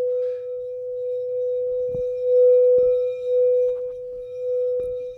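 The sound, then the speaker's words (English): A gong struck to make a chakra sound rings with a single steady, pure mid-pitched tone that holds loud and unbroken throughout, with a few brief knocks or taps sounding faintly underneath. “This is a chakra sound.”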